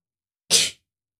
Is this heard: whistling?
no